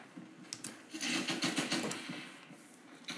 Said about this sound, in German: Oh fuck, ich höre Schüsse.